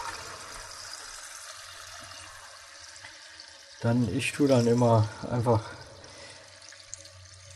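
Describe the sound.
Cold tap water runs in a steady hiss through the whole stretch, rinsing cooked food to stop the cooking process, with a man speaking briefly over it partway through before the water continues alone.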